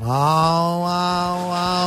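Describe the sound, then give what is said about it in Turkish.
A voice mimics a cat with a sustained, nasal meowing sound, rising slightly at the start and held steadily for nearly two seconds, fairly loud with no background noise. “O sahnede ikisi birbirine bu kedi sesini yapıyorlar.”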